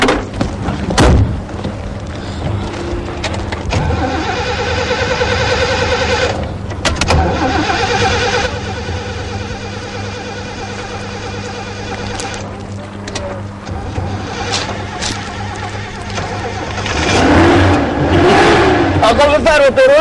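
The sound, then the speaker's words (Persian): A just-repaired car engine cranks with a thud, catches and settles into a steady idle, then revs up loudly near the end. Voices may be faintly audible under the motor. “درست شد اینم ماشین درست شد”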